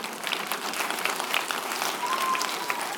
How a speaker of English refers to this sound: Therefore, God has, you can clap if you want.